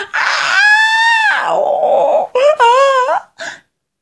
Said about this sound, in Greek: Μα μόλις τον αντιλήφθηκαν οι άνθρωποι, πανικόβλητοι άρχισαν να τρέχουν για να γλιτώσουν, βγάζοντας σπαραχτικές κραυγές τρόμου